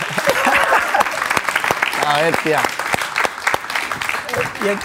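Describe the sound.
Steady applause from a few people, sharp claps rattling along for about five seconds while a voice speaks briefly over the middle of it.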